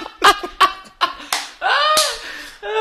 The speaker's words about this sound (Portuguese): E aí depois a Brooke devolve, tipo, hum, ela vira RuPaul, tudo bem se eu bater num mendigo? É o Paul sim, aí ela vai dar um tapa.